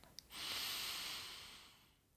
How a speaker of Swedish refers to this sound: Andas in.